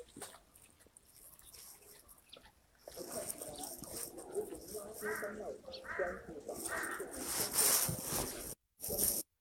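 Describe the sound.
A crow caws several times, harsh, rasping calls repeated about once a second, standing out over a steady murmur of background noise and faint voices, at Beihai.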